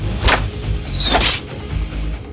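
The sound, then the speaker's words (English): A sharp whoosh of an arrow shot at a bird, cutting through the air, with a quick earlier swish and a brief descending whistle, set against a low rumbling background; no one speaks. “He let his bolt fly.”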